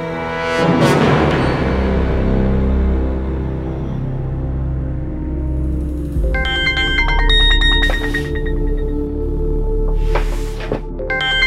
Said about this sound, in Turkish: Neden sonra duydum zili ama uyku sersemliği içinde önce kapı çalıyor zannettim. Yataktan kalktım birkaç adım attım. Uzaklaştıkça ses azalıyordu. O zaman anladım zilin başucumdaki konsola bıraktığım cep telefonundan geldiğini.